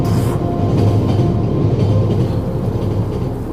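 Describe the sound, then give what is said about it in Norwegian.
A train rumbles along the rails, a loud, steady, low roar with a faint rhythmic clatter running through it for the whole stretch and no voices. “Se for deg vi ligger på huk her, så bare hører du toget lenge før du ser det.”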